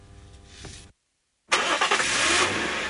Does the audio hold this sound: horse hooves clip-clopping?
no